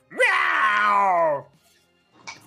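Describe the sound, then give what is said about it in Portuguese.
A voice does one long, loud, meow-like wail, imitating a cat. The pitch jumps up sharply, then slides slowly downward before cutting off, followed by a brief faint rustle. “Você percebe que ele tentou te intimidar, mas pareceu só um gato miando, entendeu?”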